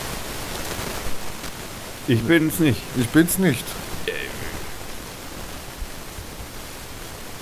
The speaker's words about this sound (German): Was ist denn jetzt für ein Rauschen da?